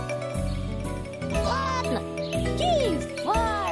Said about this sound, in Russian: Все теперь вплеталось в кружевную и невесомую ткань, Что плел своими детскими пальчиками божественный Гермес, Проводя ими по струнам.